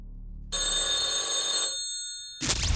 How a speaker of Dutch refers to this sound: En, en, en pas op, want mocht op een onbewaakt moment zomaar bij jou de telefoon gaan, dan is het misschien wel, zonder dat je het weet